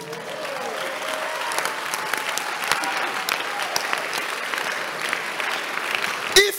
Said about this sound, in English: If you are not clapping, you are not a Christian.